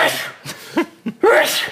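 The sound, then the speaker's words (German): A loud sneeze bursts out, with a brief snort and breath sounds between, ending in a second harsh, airy sneeze-like blast. “Gesundheit. Gesundheit. Entschuldigung.”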